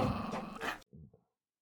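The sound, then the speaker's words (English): A dog named Lily lets out a loud, harsh bark-growl, then a quieter, low grumbling growl trails off. No one speaks. “And this is the Crazy Camming Couple Podcast with special guest star Lily the Barking Bean.”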